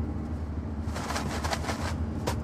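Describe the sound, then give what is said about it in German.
Kellogg's Frosties frosted cornflakes rattle and rustle in a series of quick, dry, crackly shakes over a low steady hum, with no talking. “Nämlich äh, Kellogg's Frosties. Die klingen so.”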